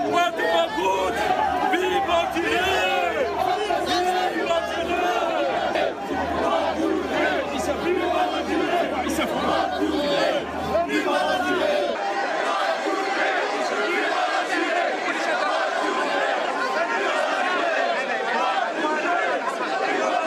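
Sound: crowd noise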